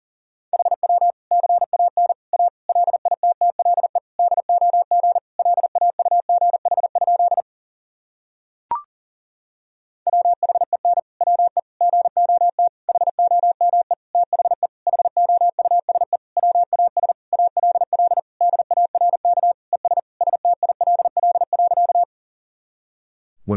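Fast Morse code at about 40 words per minute: a steady mid-pitched tone keyed in rapid dots and dashes, sent in two long runs split by a short silent gap and a click.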